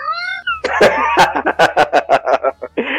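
A cat gives a drawn-out meow, then a quick run of about ten harsh, rhythmic yowling bursts, ending with another brief cry. The cat sounds fairly loud, and no one speaks.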